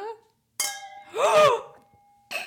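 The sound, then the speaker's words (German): Two wine glasses of different kinds, holding wine spritzer, clink sharply together in a toast and ring on with a clear, lingering tone while a voice briefly exclaims over it; a second, shorter clink follows near the end. “Lass uns oh. mal direkt oh, anstoßen, bevor wir es vergessen.”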